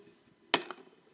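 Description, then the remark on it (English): A sharp tap of cups knocking together in a faked toast, followed a moment later by a softer second knock, a dull attempt at a clink rather than a bright ring, with no talking. “Let's cheers our cup of chaos. I'm gonna try to fake a clink.”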